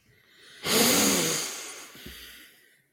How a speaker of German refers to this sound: Ja, erstmal einen tiefen Atemzug nehmen.